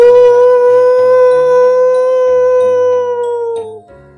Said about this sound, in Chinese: 这个月黑风高的晚上，一只饥饿的狼整夜不停的咆哮着，徘徊着。嗷！